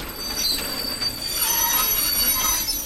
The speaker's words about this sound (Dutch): De trein stopt. De intercom zegt dat de machinist en de conducteur gaan uitstappen om de levende zwaan van de rails te jagen.